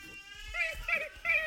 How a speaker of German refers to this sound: Bis auf ein Tier, das hat mich ein bisschen überrascht. Und zwar, ähm, der Waschbär macht so.